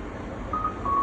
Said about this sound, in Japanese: これが結局ディレイの反響音のみなんですよ、これを。だからこれちょっと、例えば、そっか、ちょっと、こもらせたりとかしてちょっと、やってみるといいのかな